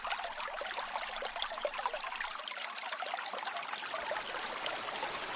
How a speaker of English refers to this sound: It is this flowing water which has nurtured and continues to nurture so much animal and plant life in this area.